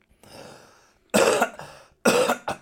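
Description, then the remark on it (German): Two loud coughs separated by a short pause, preceded by a softer breathy rasp like a throat being cleared. No one speaks. “Warum muss man Husten in den Hintergrund reinbringen?”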